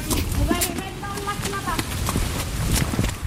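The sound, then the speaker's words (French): Irregular hoof clops of horses walking on hard ground at a stable as they are led to a paddock, with a person talking quietly over the steps. “Et eh bien là, on va aller les mettre dans un paddock.”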